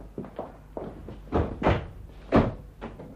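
Doors being opened with a series of wooden clunks and thuds, about six or seven irregular knocks over a few seconds, moderately loud, with no voices.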